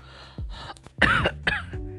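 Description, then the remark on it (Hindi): A few rough coughs in quick succession from a man walking alone, soaked by rain and shivering with cold, the middle ones loudest and harshest, with throaty clearing sounds around them and no talking. “खांसियाँ भी आ रही थी”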